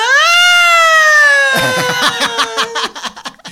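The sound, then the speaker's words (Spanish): A woman's voice lets out a long, loud, high wail that rises and then slowly sinks like a house alarm siren, while choppy laughter breaks in and takes over at the end. “Y la longa se convierte en la sirena de la casa.”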